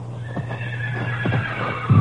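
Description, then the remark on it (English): A horse whinnies while hooves clop in an uneven rhythm as someone tries to get away with the horse, with a steady low hum underneath and a louder thump at the very end. “Somebody's trying to get away with one of the horses.”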